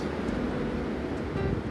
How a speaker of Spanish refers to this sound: es decir, estas palabras aquí enfrente del mar con una pequeña brisa más bien aires fuertes. En el fondo seguramente se puede escuchar un mar embravecido